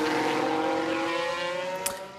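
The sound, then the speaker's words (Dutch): A Formula 1 race car on a soaking wet track makes a high-pitched engine whine that holds steady and loud for a couple of seconds, its tone shifting slightly before easing off a little at the end; no one speaks. “Maar die roze auto's, Stroll en Perez, die zijn er vandoor. Maar het is kletsnat en verraderlijk.”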